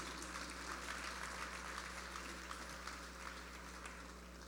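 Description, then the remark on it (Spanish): An audience applauds the Lord Jesus after a prayer in a church service, in a steady, dense wash of clapping that holds for several seconds without building or fading, with a low constant hum underneath and no voices. “Puede ocupar su lugar y dele un aplauso al Señor Jesús.”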